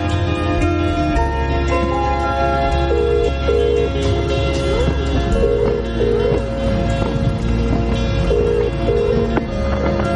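An outgoing phone call's ringing tone, as Iván calls Bethan, repeats in short paired bursts, set against a dense, steady musical backdrop that fills the whole stretch; no one speaks.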